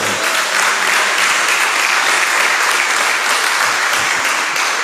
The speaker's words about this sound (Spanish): Amén. Ah, dele un aplauso.